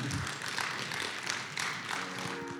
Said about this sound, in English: Come on, let's stand today and let's give the Lord a great round of applause for His word.